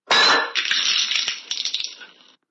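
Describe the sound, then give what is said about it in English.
A glass of juice is knocked over by a weak, shaking hand, tipping with a sharp clattering knock and a brief ringing tone, followed by a couple of seconds of lighter clinks and rattles as it settles and the juice spills. Fairly loud, no voices. “since she was feeling weak, her hand was shaking, and she knocked over the glass,”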